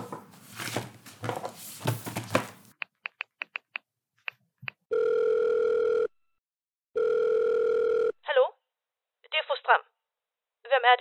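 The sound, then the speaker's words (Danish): Speech gives way to a quick series of clicks like dialing as someone places a telephone call, then two long steady ringback tones on the line, followed by brief warbling chirps; fairly loud. “Jeg må nok hellere ringe.”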